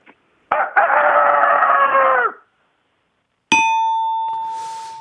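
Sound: human imitating rooster crowing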